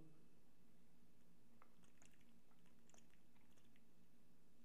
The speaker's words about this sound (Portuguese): Foda-se, eu bebi água.